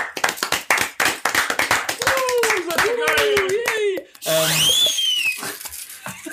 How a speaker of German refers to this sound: Dafür vielleicht nochmal ein kleiner Applaus.